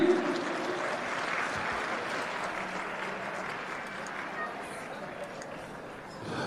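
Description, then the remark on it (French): Sustained applause from a crowd for La Cité, a dense, steady wash of clapping that holds at an even loudness for several seconds without anyone speaking over it. “Alors, une bonne main d'applaudissements pour la cité.”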